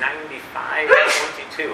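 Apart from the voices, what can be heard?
sneeze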